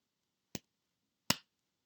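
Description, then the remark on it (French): Two light, crisp claps from small hands, marking the syllables "dou dou" in a children's syllable exercise, spaced under a second apart, each a sharp, dry snap that fades almost immediately, with quiet in between and no voices. “Tu reconnais les petites mains qui claquent dou dou.”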